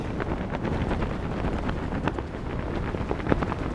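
Strong wind roars steadily across an open dune, blowing sand across it, a dense low rumble with a grainy hiss on top and rough buffeting against the microphone, with no voices.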